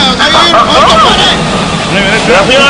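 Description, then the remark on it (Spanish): A small propeller plane drones overhead, its steady engine hum running under overlapping voices that talk loudly throughout the short stretch. “Acá pasar un avioneta, güey.”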